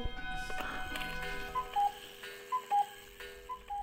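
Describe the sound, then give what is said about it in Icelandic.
An old cuckoo clock chimes, giving three clear two-note cuckoo calls, each high then low, at a steady pace after a brief stretch of mechanical whirring. No one speaks. “Þetta er gömur klukka Það býðir eftir því að fuggl komi út úr henni allt í hennu Kúkú”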